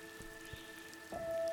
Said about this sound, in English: the sky's wide open. Rain pours down, nourishing the leaves, the trees, and the crowns of the little girls' heads, anointing them anew.